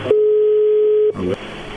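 A single steady telephone ringing tone sounds over a phone line for about a second, clear and fairly loud, followed by a brief burst of muffled voice.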